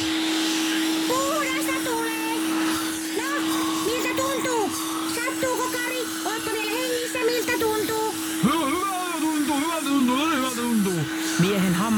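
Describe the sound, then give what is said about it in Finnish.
A vacuum cleaner, found in the corner of a room and switched on, runs steadily with its tube pushed into a man's mouth: a loud, even whine and roar, with voices speaking and exclaiming over the top of it. “Kakka Kikkare näki huoneen nurkassa siivojan imurin ja laittoi sen käyntiin”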